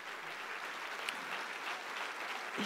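A steady wash of audience applause given for God, many hands clapping in a dense, continuous patter that holds at an even level for the whole stretch, with no voices standing out.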